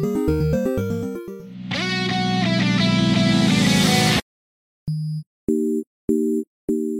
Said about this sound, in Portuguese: Vem comigo, depois da vinheta, solta o play macaco.